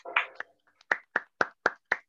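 Brief applause for a newly introduced guest: a short burst of sound, then five or six sharp, evenly spaced hand claps in a steady rhythm, moderately loud, with no talking over them.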